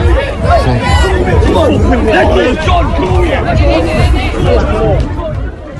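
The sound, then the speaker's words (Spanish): Loud, agitated crowd noise from a street fight outside involving Everton goalkeeper Jordan Pickford, with punches being thrown: many voices shouting and talking over one another in a dense, continuous babble, staying at a steady high level for about six seconds. “es el sonido de, la pelea.”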